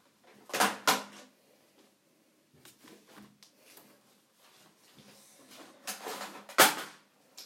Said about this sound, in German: Schon wieder was runtergefallen, wie immer. kann ich nachher aufräumen.